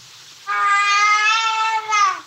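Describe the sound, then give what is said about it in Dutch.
A baby, just woken and fed, screams out of the blue: one loud, high-pitched scream that holds steady for nearly two seconds before its pitch dips slightly at the end. No one talks over it. “Namelijk schreeuwen uit het wilde weg.”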